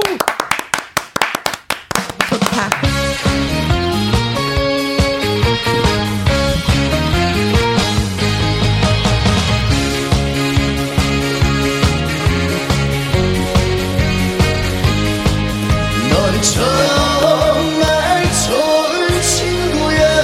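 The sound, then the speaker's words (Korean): A burst of hand clapping opens, then a live recording of a song performed on October 9 takes over: a full band with a sung male vocal line, steady beat and sustained melodic notes, loud and continuous to the end. “자 그럼 그 멋진 사나이의 노래를 한 곡 라이브로 들어보도록 하겠습니다.”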